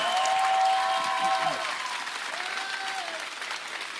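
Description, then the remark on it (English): Sustained applause from an audience at the end of a conference, a dense, steady wash of many hands clapping that stays loud throughout, with a few faint tonal whistles or voices rising above it. “You should clap bigger О, би да аплодираш малко повече.”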